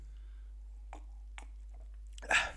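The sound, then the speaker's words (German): Drinking noises: two short, soft gulps followed by a louder, wetter slurping swallow at the end, with no talking over a faint low hum. “Wie trinkt man denn laut?”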